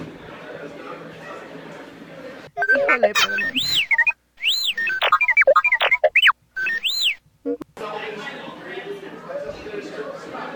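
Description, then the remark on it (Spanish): A burst of robotic astromech droid chatter from R2-D2 (Artu), a recorded welcome message: rapid electronic beeps, warbling whistles and sweeping high chirps in quick bursts, framed by people talking before and after. “Para los que no hablan este idioma de astro, Astromec, o androides de protocolo o, androides de compañía.”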